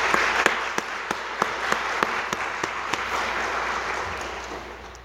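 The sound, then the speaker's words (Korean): An audience applauds steadily to encourage one another and those who led the worship singing, a dense wash of many hands clapping at an even level for about five seconds, with a few sharper individual claps standing out early on. “우리 오늘 찬양으로 수고해 주신 분들과 또 저희 모두에게 우리 다시 한번 박수로 서로 격려했으면 좋겠습니다.”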